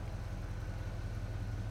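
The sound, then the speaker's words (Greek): A beekeeper's small truck, loaded with beehives, rumbles steadily at low speed along a winding dirt lane through a forest, a continuous deep droning hum with no voices and no clear rise or fall in loudness over the short stretch. “Το μουγκριτό της μηχανής του και το βοητό του μελισσιού σβήνουν σιγά σιγά, αφήνοντας το δάσος στη συνηθισμένη του ησυχία.”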